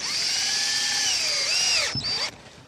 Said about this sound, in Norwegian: Skruen blir drilla inn, og enda et reklameskilt er på plass på skiskytterstadion.